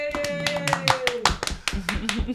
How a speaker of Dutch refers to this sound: Applaus.